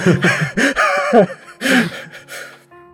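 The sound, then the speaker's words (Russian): Several loud, exaggerated, deliberate breaths, voiced gasping inhales and exhales in quick succession, fading into a quiet low tone at the end. “теперь ты дум... э, дышишь осознанно.”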